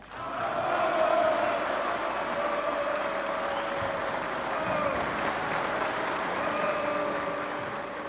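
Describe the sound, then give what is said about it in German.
Sustained applause from a large crowd after a political speech in Germany in 1952 fills the whole stretch at steady strength, a dense wash of clapping with faint voices mixed in, never letting up. “Diesmal gibt es langanhaltenden Applaus.”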